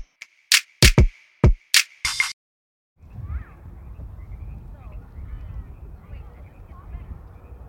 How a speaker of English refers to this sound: I hear frogs.